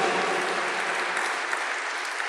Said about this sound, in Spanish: Palabra de Dios. Bendita. Háganle un fuerte aplauso a la bendita palabra de Dios.